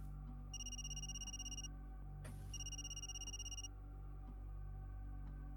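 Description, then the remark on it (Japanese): A man's mobile phone rings with a bright, trilling electronic tone in two separate bursts about a second apart, clear, with a brief click between them and no voices, interrupting a conversation. “笹原通りの言葉を遮るように、彼の携帯電話が鳴り響きます”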